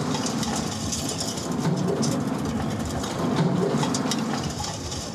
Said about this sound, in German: Also richtig, fünf Meter, ein fünf Meter langer Tisch, eine simulierte Baustelle. Und äh, gerade sehen wir beispielsweise Abfallbehälter, die sich in unterschiedlicher Geschwindigkeit mit unterschiedlichen Fraktionen füllen. Hört ihr es?